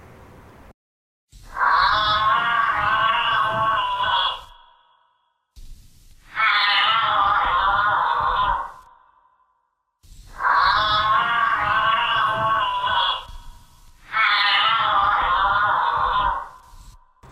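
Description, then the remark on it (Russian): A giraffe vocalizing during courtship: four long, loud, buzzy moaning calls of about three seconds each, evenly spaced with short silent gaps, with no talking. “я просто в какой-то вечер а, задумался о том, какой звук издают жирафы”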